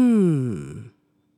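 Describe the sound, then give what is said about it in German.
A single voiced "mmh" hum, made while imagining tasting a favorite food, starting with a slightly rising tone and then gliding down before fading out after about a second; clear, with no other sounds. “Stelle dir vor, du schmeckst in deinem Mund eine sehr angenehme Speise, deine Lieblingsspeise, und weil es deine Lieblingsspeise ist, machst du das entsprechende Geräusch dazu.”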